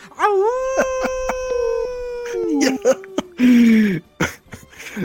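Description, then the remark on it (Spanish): A man's voice imitates a long male wolf howl, rising then holding a steady wavering pitch before sliding down, loud, broken by a few sharp clicks and breathy bursts near the end. “Las noticias con el único hombre que las oyenta con su Aullido del lobo macho.”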